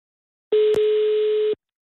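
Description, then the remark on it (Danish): A single steady, one-second burst of a telephone ringing tone on an outgoing call to a randomly chosen number in the Saxkøbing area, clear, interrupted briefly by a small click, with silence before and after. “Jeg ved ikke helt, hvem vi ringer til lige nu.”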